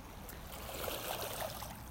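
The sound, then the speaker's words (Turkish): A steady, even wash of sea waves at the seaside, constant and moderately quiet, with faint small splashes or tones flickering briefly through the texture and no one speaking. “Evet deniz kenarındayım.”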